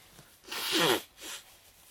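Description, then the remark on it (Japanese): A forceful blast of nose blowing in the speaker's own room, a hissy, honking burst about half a second long, followed by a shorter, softer blow, with no talking. “えー、もうこの鼻かんでるシーンまで載せてやりますからね”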